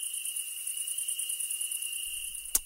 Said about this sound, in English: It's the sound of um, of you know that insect sound in the late summer when it's really hot and humid. For whatever reason, I associate that with blackness.